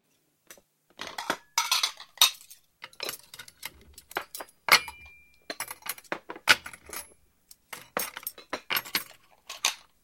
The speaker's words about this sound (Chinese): 哎，爸，你放着，我来收拾碗筷。